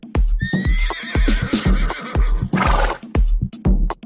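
animal, horse neighing

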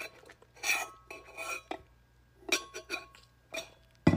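food or drink, sipping water

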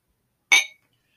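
household object, glasses clinking

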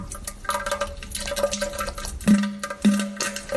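household object, toilet flushing

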